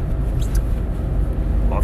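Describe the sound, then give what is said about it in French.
A Volkswagen Up small car's engine drones steadily from inside the cabin at 8:30 in the morning, a continuous low rumble that stays loud and even for the whole couple of seconds. “Alors, j'ai une voiture qui fait un petit peu plus de bruit aujourd'hui parce que je suis dans la voiture de mon maman.”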